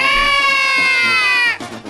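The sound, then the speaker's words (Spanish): A crowd of single women at a live Radio Poder promotion lets out a loud, high-pitched collective shout when called on, held steady for about a second and a half before it abruptly falls away. “Muy bien, a ver, venga el grito de la soltera.”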